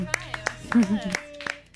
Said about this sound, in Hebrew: שכחתי להגיד לכם שאתם אה, גם צריכים למחוא כפיים.